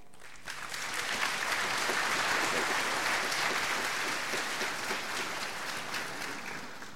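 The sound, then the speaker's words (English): Sustained crowd applause welcoming a speaker rises quickly and holds steady for several seconds, a dense wash of many hands clapping at moderate loudness with no voices over it. “Would you give him a warm welcome?”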